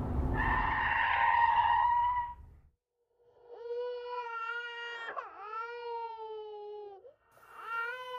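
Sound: baby crying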